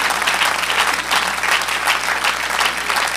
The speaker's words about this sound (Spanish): Ah, gloria a Dios, devolvió un aplauso al Señor.